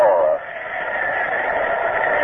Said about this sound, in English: And you can hear the hum of the crowd.